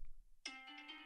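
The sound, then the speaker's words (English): After a moment of near silence, a bright electronic phone reminder alert chimes in abruptly and rings on steadily, a clear synthetic melody with rich tonal overtones, fairly loud. “that sound reminds me that it's time to post a clip from this podcast on TikTok”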